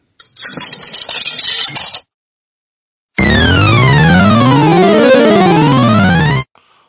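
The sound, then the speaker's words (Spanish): About two seconds of coins clattering and clinking into an arcade machine of the kind found in billiard halls, such as Comecocos (Pac-Man), then a pause before a loud electronic jingle of rising and falling synthesized tones sweeping across each other for several seconds. “No, coño, las máquinas traga eh, de los de los billares, come cocos, el, come cocos, eh, echar, la echar la monedica.”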